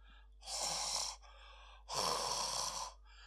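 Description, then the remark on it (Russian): A voice imitates a bear cub breathing heavily: two long, loud, airy breaths, each about a second, separated by a short pause, with no talking. “Дышал медвежонок.”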